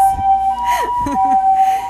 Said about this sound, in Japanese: すいません救急車が目の前通ります